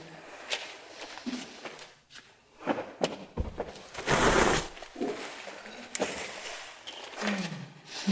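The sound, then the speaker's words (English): Furniture being shifted around: irregular scraping drags and dull thumps over several seconds, with a loud grinding scrape in the middle and no voices. “We're, we're moving the furniture around in order to get the audio right over here so that you guys can hear.”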